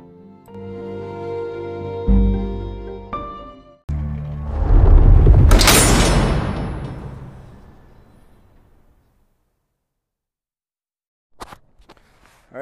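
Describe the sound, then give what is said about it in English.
A heavy vault door slams shut with a deep, booming metallic impact, preceded by a brief tonal swell. The low rumble decays slowly into silence, followed by a few faint clicks. “unfortunately, you know that sound, and that is the sound of the vault closing on another successful podcast.”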